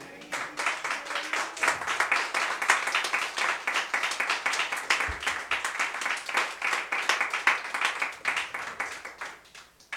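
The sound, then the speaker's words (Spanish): An audience claps to the Lord together in a steady, rapid rhythm, many hands striking at once for the full stretch, loud and continuous with a faint murmur of voices underneath. “si yo fuera le diera palmas al Señor”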